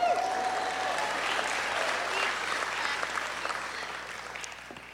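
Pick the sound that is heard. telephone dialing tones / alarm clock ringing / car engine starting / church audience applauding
church audience applauding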